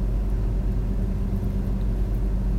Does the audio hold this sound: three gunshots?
no